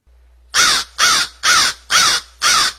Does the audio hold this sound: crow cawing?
yes